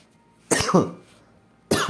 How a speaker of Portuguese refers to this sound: Mas tudo certo. Se você é maconheiro, você tá acostumado com pessoas tossindo no seu ouvido.